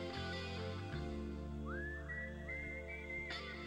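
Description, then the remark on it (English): A clear, melodic whistle rises and glides in a few sustained notes over a steady musical backing, prominent, with no voices. “Listen to that whistle, and that really is cool.”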